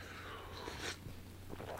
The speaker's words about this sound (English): I'm gonna have another sip of coffee. Hold on, just one sec.